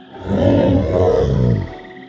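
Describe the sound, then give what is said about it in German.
A single deep, loud creature roar swells up and rumbles for over a second before cutting off, alone with no talking, as the creature opens its maw. “Pass auf, jetzt steht er vor dir. Er öffnet brüllen das Maul.”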